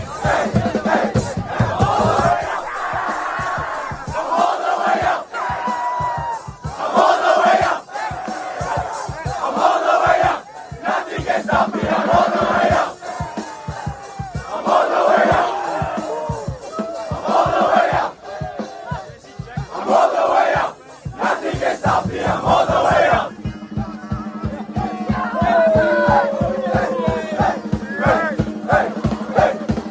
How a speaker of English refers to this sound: Who's getting you going this week? Which high school war cry? Them versus Wynberg.